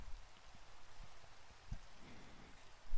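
Steady rain falls without a break, a soft, even hiss with scattered drops pattering on a surface, fairly quiet, with no voices.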